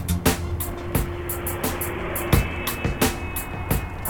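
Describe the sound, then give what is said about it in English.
A car drives along steadily, following another car from a few cars behind as it turns west onto Olive Way, its low engine hum and road rumble broken by frequent sharp bumps and clicks, heard from inside with no one talking. “I'm a few cars behind her.”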